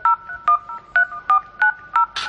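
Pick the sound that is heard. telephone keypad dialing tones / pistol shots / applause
telephone keypad dialing tones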